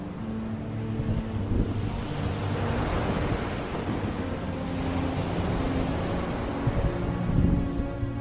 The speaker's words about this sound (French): Le terrible dragon rentra dans une telle colère qu'une formidable tempête éclata en surface, faisant rouler des vagues écumantes hautes comme des montagnes.